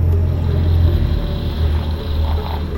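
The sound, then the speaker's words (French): A helicopter flies over a cabin, its deep rumbling rotor and engine noise loud and holding at a constant level throughout, without any voices. “il est en train de survoler ma cabane.”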